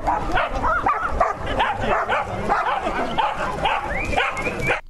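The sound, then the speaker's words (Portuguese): Many dogs bark and yip at once in a dense, continuous chorus, loud, with excited overlapping barks and a faint murmur of people underneath, as dogs and their owners run together in a competition on a beach in Croatia. “portanto, cães e donos a correr todos ao mesmo tempo e não só.”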